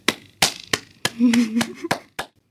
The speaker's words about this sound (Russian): Браво! Аплодирую стоя!